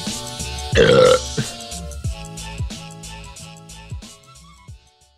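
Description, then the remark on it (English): A single loud, drawn-out burp erupts for about half a second after drinking about 60% of a beer, surrounded by light, bouncy background music with a steady plucked rhythm. “I just drank like 60% of a beer. I don't have a burp.”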